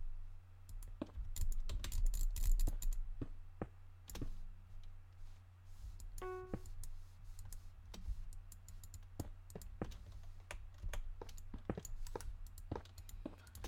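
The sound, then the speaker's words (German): Computer keyboard typing, a steady run of quick, irregular clicks over a constant low hum with no one speaking. “Ich hoffe, man hört übrigens meine Tastaturgeräusche nicht zu laut.”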